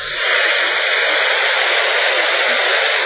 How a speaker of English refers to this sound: That's white noise. That's simply uh, a combination of all noises coming out of uh, a radio, right? When it's not tuned to anything specific.